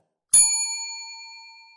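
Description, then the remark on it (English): A single bright game show bell ding signals that time is up, striking sharply and ringing out clearly, its shimmering tone slowly fading over more than a second, heard on its own with no voices. “Ooh, and that's time.”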